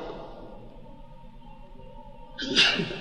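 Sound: a person sneezing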